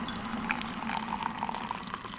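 Steady bubbling, gurgling sound of water being heated and poured to make kola nut tea, continuous with small pops scattered throughout; no talking.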